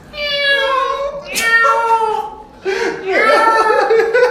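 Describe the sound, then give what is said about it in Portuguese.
A person imitates a cat, letting out drawn-out, wavering meows in two loud bursts with a brief pause between, sounding convincingly feline with a slightly laughing edge. “eu, eu, eu, sei imitar tão gato, tão bem, gente. Até gato fazendo as coisas, eu sei imitar.”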